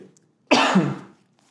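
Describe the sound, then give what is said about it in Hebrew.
A single loud cough from a person wearing a mask bursts out abruptly and trails off over about half a second, with quiet before and after. “אנחנו עם מסכות, אם אתם שומעים פה שיעול, אנחנו מקפידים.”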